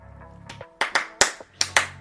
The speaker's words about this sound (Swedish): Ja, vi kan klappa många gånger.